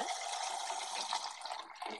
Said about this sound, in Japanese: ちょっとお水入れるね、ごめんね。